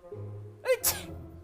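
A single sneeze: a short voiced intake of breath, then a sharp, breathy burst, over a low steady background hum.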